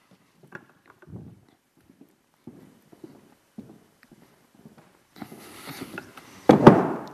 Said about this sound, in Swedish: Jag har en favoritbild. Jag ska hämta en stol här för att visa den.